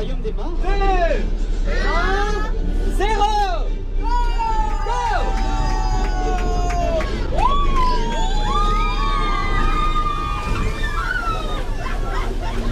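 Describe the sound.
A group of people aboard a bus in Paris sings a cheerful French pop song together, voices rising and falling in sustained melodic lines over a constant low engine rumble and background chatter.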